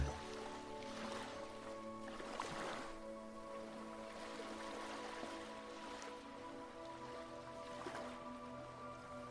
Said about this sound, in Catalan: el so de la remor del mar, de les onades trencant a la platja.